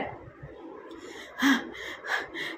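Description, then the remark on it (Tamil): A voice imitates a woman panting very heavily through her mouth after running, with a few loud, rough breaths at a steady rhythm after a quieter start, breathy with no words spoken. “கைப்பையை கீழே வச்சுட்டு குனிஞ்சு முட்டி மேலே கை வச்சு வாய் வழியாக இருதயம் வந்துடுற மாதிரி அதிபயங்கரமாக மூச்சு விடுறா”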